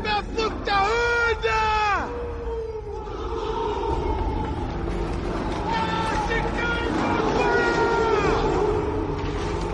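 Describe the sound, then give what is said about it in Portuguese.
A single barbarian bellows a long, drawn-out war cry, then a huge army of barbarian warriors about to fight the Romans answers with a sustained roar, more drawn-out yells rising over the din near the end. “Pra quem não sabe, isso é no início do filme, porque eles vão lutar contra os bárbaros, os romanos vão lutar contra os bárbaros, daí o bárbaro chega, grita alguma uma coisa que é literalmente.”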